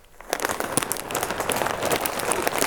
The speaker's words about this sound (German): Das war oh. Müsli. So Knusper-Dingsies.